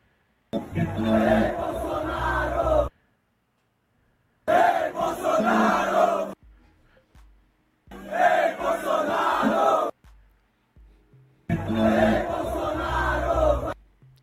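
A large concert crowd chants a political slogan in unison, four loud bursts of about two seconds each separated by short pauses, the voices dense and rhythmic.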